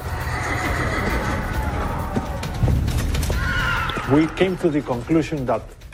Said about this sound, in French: Les Espagnols n'avaient pas seulement des armes redoutables. Certains avaient des chevaux, cet animal n'existait pas en Amérique du Sud.